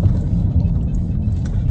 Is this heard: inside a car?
yes